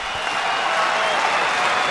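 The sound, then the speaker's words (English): A tennis crowd at Roland Garros cheers and applauds at match point, with Nadal leading Thiem 5-1 in the fourth set, in a steady, loud roar of clapping and voices that holds unbroken for a couple of seconds, with no single speaker standing out. “Listen to that crowd.”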